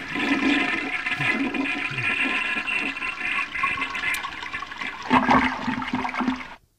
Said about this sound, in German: Die Klospülung der Folge.